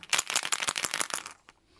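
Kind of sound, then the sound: dice being rolled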